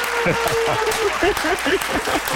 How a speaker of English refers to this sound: and the crowd goes crazy.